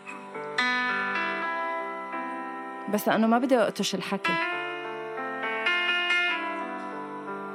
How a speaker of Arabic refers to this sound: رح اسالك من بعد ما نسمع الغنيه تفضل اوكي رح نسمع سويا